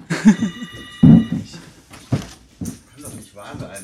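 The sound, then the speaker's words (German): A telephone rings at the Schauspiel Frankfurt theatre during a recording, a steady, bright electronic tone in the first second or so, while people talk over and after it. “Und äh, ja, da klingelt das Telefon, wir gehen da gleich dran.”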